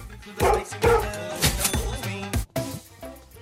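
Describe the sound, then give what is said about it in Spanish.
An alabay dog barks loudly, a series of deep, booming barks in an uneven rhythm, roughly five or six in quick succession with no one talking. “No cabe duda de que estos perros son adorables”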